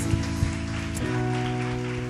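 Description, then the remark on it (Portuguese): A church audience applauding for Jesus during a worship service, a dense, steady wash of clapping that holds for about two seconds, with sustained low musical chords from a keyboard playing underneath. No one speaks. “Dê um aplauso a Jesus, queridos.”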